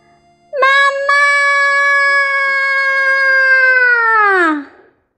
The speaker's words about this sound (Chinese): 这样刺耳的尖叫声会让他们精神崩溃而跑掉。